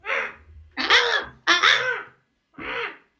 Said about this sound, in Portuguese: Gostou do corvo? Não, não gostou? Eu gostei.